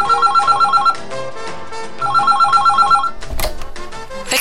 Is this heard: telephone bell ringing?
yes